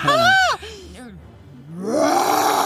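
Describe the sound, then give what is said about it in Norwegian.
A bear growls and roars in loud bursts: a strong falling roar, a few lower grunting groans, then a long rising growl at the end. “Nei, det var en bjørn. Du hører en ordentlig bjørn.”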